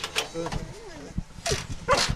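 A four-month-old puppy yips and lets out a wavering, whiny howl, with a few sharp bursts of barking across a couple of seconds.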